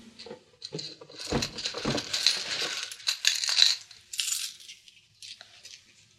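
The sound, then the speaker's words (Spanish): Gold coins clink and jingle in a quick, irregular cluster, bright, as a handful is scooped from a chest and shifted, then the rattling thins out and fades to quiet. “Pero, ¿tan pocas monedas te bastan?”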